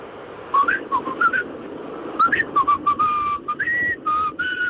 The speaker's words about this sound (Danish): Nu er du i radioen. Lad os lige høre dig fløjte en gang.